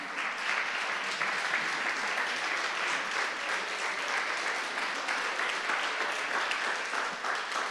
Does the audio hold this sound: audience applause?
yes